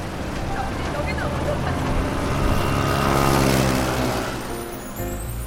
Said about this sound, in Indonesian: Sepeda motor yang menunggu di barisan terdepan mulai bersiap seperti balapan. Ketika sekan yang membatasi kendaraan diangkat, akhirnya sepeda motor dan mobil mulai bergerak.